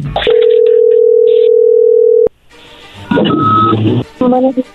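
A telephone ringback tone on an outgoing call: one steady, loud, mid-pitched ring lasting about two seconds, then a sharp click as the line picks up and crackly line noise follows.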